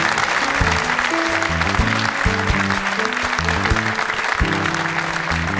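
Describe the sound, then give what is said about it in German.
A studio audience applauds steadily and loudly throughout, a dense wash of clapping that never lets up, with a bouncy musical tune playing underneath. “kriegt aber einen Applaus wie immer, der sich zumindest mit dem von Stefan Effenberg messen kann”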